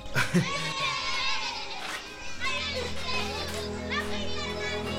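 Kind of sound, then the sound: crowd, children playing and chattering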